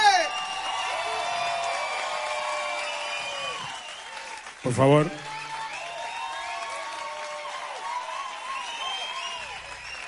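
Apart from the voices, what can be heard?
audience applause and cheering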